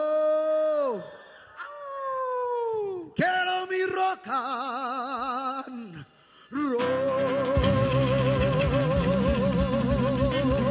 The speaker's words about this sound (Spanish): aullando, ladrando, aullando, ladrando y aullando.